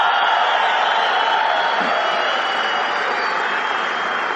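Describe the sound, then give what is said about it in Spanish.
A crowd at a convention gives an ovation to first-time attendees, applauding loudly and steadily, a dense wash of clapping with scattered cheers and whoops mixed in, sustained at an even level throughout. “Vamos a hacerles una super ovación.”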